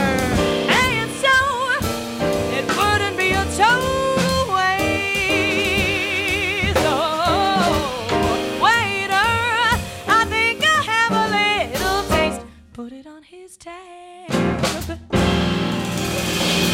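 A jazz singer performs live, holding long, vibrato-laden notes over piano, double bass and drums, the band playing steadily before dropping nearly silent for a couple of seconds, then returning.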